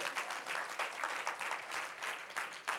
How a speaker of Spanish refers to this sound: Aleluya. Dele palmas a ese Cristo.